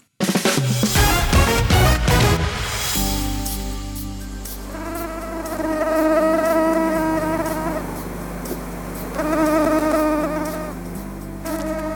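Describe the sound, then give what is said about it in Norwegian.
A high-pitched mosquito whine drones steadily and loudly, its pitch wavering and swelling as the insect drifts about, after a brief burst of mixed sound at the start. No one speaks. “Noen går lenger enn andre for å bli kvitt myggen.”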